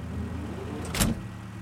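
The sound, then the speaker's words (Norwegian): A car trunk is opened with a single sharp mechanical clunk and latch release, over a steady low engine-like rumble, as a man goes back to his car in the centre of Rena, Norway, and something is moved from it to another car. “Han går tilbake til bilen og lukker opp bagasjerommet, og det flyttes noe fra hans bil og over til Jonas sin.”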